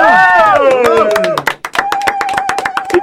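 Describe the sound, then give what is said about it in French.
Studio audience applause for someone important to the couscous team: scattered, irregular hand claps with cheering and voices over it at first, then a sustained tone holding steady beneath the continuing claps. “Je vous demanderai à tous de bien vouloir applaudir quelqu'un de très mhm. important pour le couscous”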